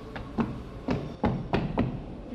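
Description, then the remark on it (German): Steady footsteps clunk on a metal staircase at a railway station, about six dull, hollow impacts at an even walking pace, moderately loud, with no talking. “Über also diese Metalltreppe ist eine Schülerin mit Rückstöcken heruntergekommen. Wenn wir draufgehen, ist es etwas dumpfer”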